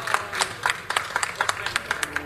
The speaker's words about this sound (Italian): Ringraziamo anche gli artisti che si sono esibiti poco prima di noi. Un applauso a loro, bravissimi.